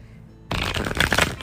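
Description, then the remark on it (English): Crisp riffling of a deck of tarot cards starting abruptly after a moment of quiet, a dense flurry of papery flicks that continues steadily to the end. “soon as I went shuffling the cards and like stuff just went to follow that like, they just started flying.”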